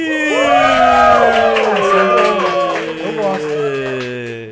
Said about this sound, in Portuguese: Tá, quem quer saber de onde vem essa gritaria toda? A gente está diretamente do cinema da Faculdade Melier com os alunos da Faculdade Melier.